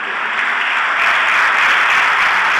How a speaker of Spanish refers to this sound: Con un aplauso cerrado, los familiares de … se retiran del cementerio de la Chacarita, donde los restos de la cantante fueron cremados.